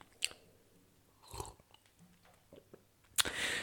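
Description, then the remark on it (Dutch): Someone takes a sip of a drink: a few short wet mouth clicks and a soft swallow, then a brighter burst near the end, with no talking. “Neem wel eens even een slok, want ik vind het een beetje spannend, maar goed.”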